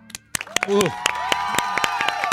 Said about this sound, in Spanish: ha venido el ruso Berea, a quien por supuesto vamos a aplaudir